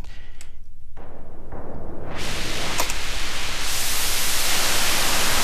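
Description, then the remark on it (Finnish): A synthesizer's noise generator hisses steadily, starting muffled and opening up within a couple of seconds into loud, bright, full-band white noise that continues unbroken, with no voices. “Siitä tulee tosi puhdasta valkoista kohinaa.”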